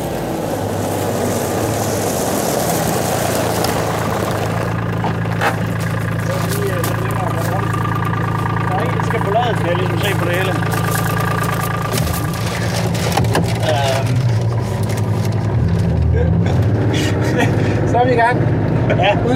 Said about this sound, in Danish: udstyret med sandwicher og installeret i denne lille safari-bil. Hvad kalder du den? Det er en UTV. Det er, det er jo bare en ATV på med, med et ret i stedet for. Og så er der en kabine i.